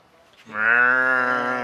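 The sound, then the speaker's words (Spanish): After a brief hush, a person's voice imitates a cow with one long, loud, steady moo, sustained until the end, recalling a herd of cows heard far off before reaching a lake. “Y me acuerdo, güey, que antes de llegar al lago empezamos a escuchar un rebaño de vacas.”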